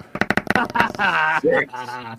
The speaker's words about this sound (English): Here we go. Dice. Here we go. Roll the bones.